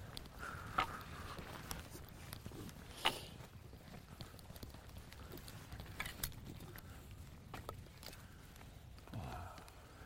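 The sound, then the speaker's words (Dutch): A handful of sharp, hollow wooden knocks land at irregular intervals as wooden clogs kick against a spotting scope during birdwatching, over a steady outdoor rumble of wind, with no voices. “Je, hebt, eh, je moet ook niet tegen de scope schoppen met je klompen van je.”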